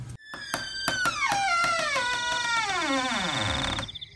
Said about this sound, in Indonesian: Agung dan Aris sedikit terkejut mendengar suara pintu terbuka disusul suara serak seorang lelaki tua berbaju batik lusuh dengan paduan belangkon kain hitam.